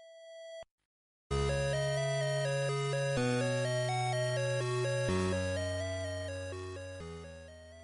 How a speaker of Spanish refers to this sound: las bandas sonoras de los juegos Antis, Slytham y Target Renegade, que estáis escuchando ahora mismo de fondo en bucle